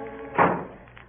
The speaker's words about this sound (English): Ah, oh, shut that door.